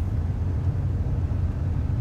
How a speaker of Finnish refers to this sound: Minun täytyy olla hyvin tarkka autoa ohjatessani, koska varomaton liike voisi luistaa sen sivun tieltä ja voisin upota tähän jäätyneeseen veteen.